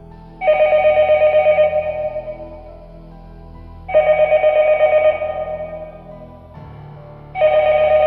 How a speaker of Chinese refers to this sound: 这个楼道里边儿响了电话铃声， 我去， 我操， 响了四声。